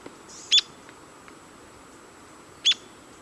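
An Arizona Woodpecker gives two sharp, high-pitched call notes about two seconds apart, clear against a quiet outdoor background.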